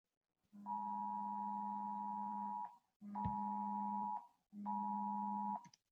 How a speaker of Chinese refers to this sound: 那我不知道你在手机上还有没有收到过一种警报，它叫做 Amber Alert，叫安博 嗯 警报。 我也收到过一两次。 嗯，我在这儿给你放一下这个安博警报的声音啊。